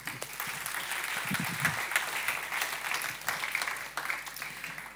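Steady audience applause, a dense crackle of many hands clapping at moderate loudness for the whole stretch, with a few brief low murmurs beneath it and no clear speech.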